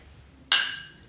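A single bright clink of glasses of water touching in a toast at a year-end celebration, a sharp ringing strike that lingers and fades over about half a second. No voices are heard.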